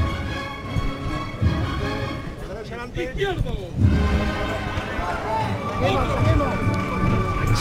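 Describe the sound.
Rhythmic, shuffling footsteps of costaleros carrying the procession float of the Cristo de las Tres Caídas on a cold night, at the corner of Calle Rioja and Velázquez, a steady scrape of many feet moving together, heard under a continuous murmur of voices.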